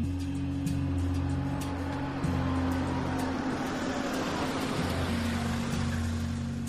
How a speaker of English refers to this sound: April 20th, 1968. A car pulls up to Pannone's meat market.